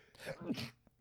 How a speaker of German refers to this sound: Gesundheit.